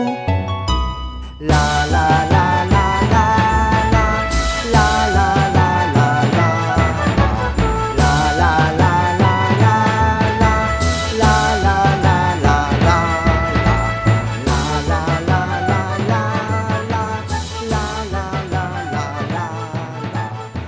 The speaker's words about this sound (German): Hauke Flöte und das Becken und der Klingklong mit drei Ecken.